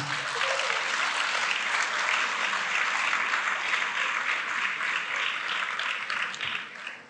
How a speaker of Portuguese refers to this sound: Pode aplaudir Jesus.